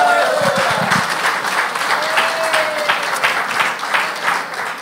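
A church audience breaks into steady applause for the music group, many hands clapping together in a dense, sustained wash that carries at an even level for several seconds, with a few brief cheers or voices mixed in.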